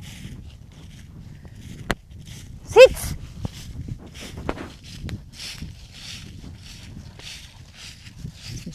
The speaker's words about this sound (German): Gott, meine Hunde schreien. Kleiner Moment. Hey!